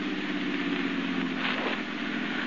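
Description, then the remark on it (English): A car engine hums steadily with a continuous low rumble and broad road or gravel noise as the car turns up the tree-lined driveway of Medford Manor at night, rolling slowly forward. No one speaks. “The car turns up the tree lined driveway.”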